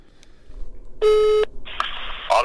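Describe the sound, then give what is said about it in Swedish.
A loud, steady electronic phone tone sounds once for about half a second as a Sportbladet reporter calls a columnist at Västerbottens-Kuriren, followed by a hiss of line static and a brief second burst, with no one speaking. “Han eh, har sett matcherna och vi, vi ringer till honom och ser vad han har att säga.”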